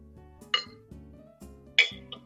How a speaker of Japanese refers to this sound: もうビールをついでいただきます。ビールを飲みながらリラックスして配信しようかと思って。